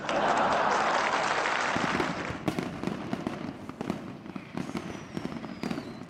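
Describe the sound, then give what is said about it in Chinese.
Firecrackers crackle in a dense, continuous roar at first, thinning after a couple of seconds into rapid, irregular pops and bangs that keep going throughout with no one speaking. “越到午夜，鞭炮声就越来越响，越来越密集。”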